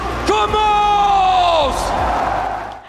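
A loud esports arena crowd of thousands at the 2019 League of Legends World Championship final, watching gamers play on a stage, cheers and roars continuously, with a sustained, bellowing whoop that rises above the din, holds for over a second, and then falls away into the steady crowd noise.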